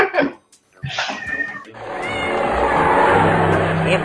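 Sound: cat meowing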